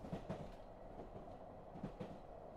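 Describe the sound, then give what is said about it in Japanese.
A revived sleeper train, recreating India's sleeper trains, rolls steadily along the rails on a long journey to the sea, its low rumble broken by paired clickety-clack beats from the wheels crossing track joints, continuous with no voices. “海に僕らは列車で向かった3泊4日の長旅でその寝台列車は快適じゃなさをセールスポイントにして復活した特別なものだった”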